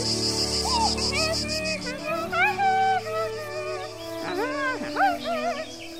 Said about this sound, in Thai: เจ้าจักจั่นตัวน้อยกำลังโบยบินด้วยความสนุกสนาน